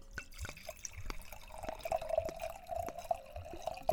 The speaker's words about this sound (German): Jetzt kommt mein wein einschenk sound